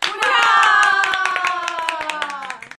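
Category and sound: crowd, applause with cheering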